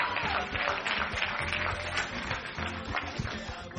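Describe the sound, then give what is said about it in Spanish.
A crowd bursts into steady applause for the young men, a dense wash of clapping that holds at an even level throughout, with a low murmur of voices underneath. “Eh, un aplauso a los muchachos”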